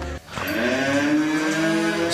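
cows mooing

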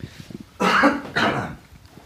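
throat clearing

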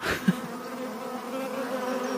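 bees buzzing

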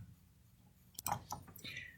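computer mouse clicking

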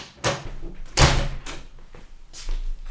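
front door being opened

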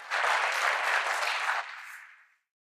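audience applause

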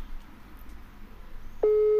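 telephone busy signal

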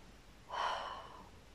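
sipping coffee

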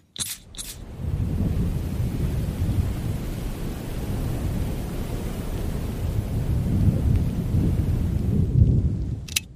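perfume being sprayed

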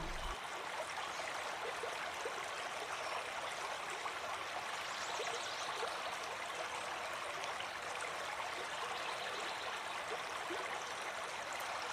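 flowing river stream

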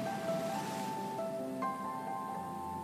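gentle ocean waves

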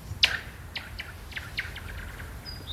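birds chirping

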